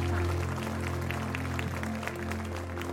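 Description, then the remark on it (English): A crowd claps for God steadily for the whole three seconds, a dense patter of many hands, over a sustained low humming tone. No one speaks. “love it when you clap for God.”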